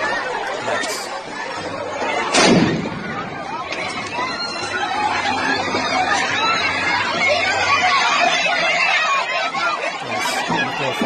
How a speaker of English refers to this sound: So for those that are listening, what happened was is a group of feminists. It is mostly women, and someone comes up behind them and tries throwing a Molotov, which falls right into the crowd, bursts into flames